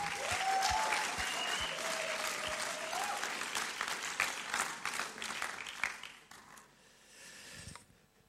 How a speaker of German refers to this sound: Er steht oder sitzt hinter der Technik. Ich würde gerne dir noch einen Applaus geben.